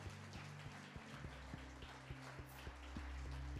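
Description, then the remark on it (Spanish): An audience at a church service applauds Christ steadily, a dense patter of many hands clapping at once, sustained throughout, with a low musical drone underneath. “Dar un aplauso a Cristo una vez más.”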